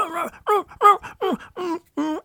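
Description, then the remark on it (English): A person imitates a dog's barking with six short voiced barks in a steady rhythm, each one swooping up in pitch and then dropping back down. “Usually there's a there's a rise and a fall to barking.”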